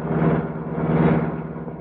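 The engine of the Black Beauty, the Green Hornet's sleek superpowered car, roars loudly into life after Britt Reed presses a button in its hidden garage building, a deep, throaty rumble that holds steady for a couple of seconds with a slight swell in the middle. No voices.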